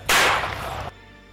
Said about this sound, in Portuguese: Tiro no peito.